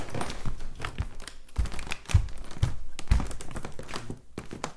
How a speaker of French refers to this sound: Maintenant, le bruit du plancher. Ça grince, ça grince.